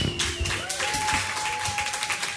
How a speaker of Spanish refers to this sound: aplauso a la Machine.